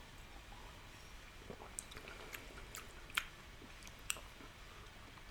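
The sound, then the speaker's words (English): Quiet mouth sounds: a few soft wet clicks and small slurping noises as sake is sipped from a cup, with a faint background hush and no talking. “Um, then just take a sip”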